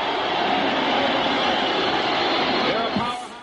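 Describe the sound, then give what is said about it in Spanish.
A loud, sustained roar from the huge crowd at the Garden on 12 June 1984, game seven of the Finals between Magic's Lakers and Bird's team, dense and steady throughout before easing slightly at the end, with indistinct voices buried in the din. “Atronador el sonido del Garden en el...”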